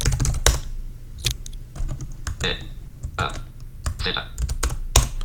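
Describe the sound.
Irregular bursts of computer keyboard typing as the word "cortina" is deleted and "verbalizar" is typed into an NVDA filter field, sharp clicky keystrokes in quick clusters with short pauses, while a brief spoken interjection and low background hum sit underneath.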